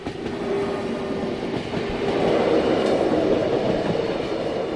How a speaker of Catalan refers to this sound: Ah, el tren veig que pita, eh? Sí, Deu avisar amb prou sí, temps sí, sí, de que ve. Estem tots molt contents dels pitos aquests.